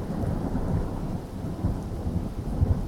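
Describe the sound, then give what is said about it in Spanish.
A thunderstorm rumbles low and continuous while steady rain hisses across the whole span, with deep thunder swelling in waves and no voices present. “¿Qué pasa con ellas cuando cae una tormenta?”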